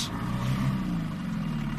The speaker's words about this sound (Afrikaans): En ek hoef nie so te skree teen die boot se engines as ek met jou wil praat nie.